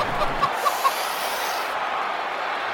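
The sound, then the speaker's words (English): A rooster clucks three times in quick succession, short clipped notes sitting over a steady, hissy background wash, with no voices present. “That rooster is really rattling tank springs.”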